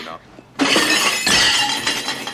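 A waiter drops a tray of plates: a sudden loud crash of shattering dishes as the plates hit the floor and break with a bright, clattering burst that rings on for about two seconds after a quiet start.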